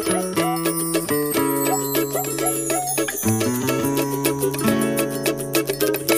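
A relaxed Brazilian song intro by a local band plays at steady volume, with a bouncing bassline, bright plucked strings and light chiming percussion in an easygoing rhythm, no voices yet.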